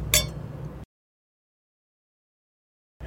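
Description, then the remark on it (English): A single bright clink of wine glasses in a toast rings out and fades quickly over a low background hum, followed by abrupt silence. “Cheers. Cheers.”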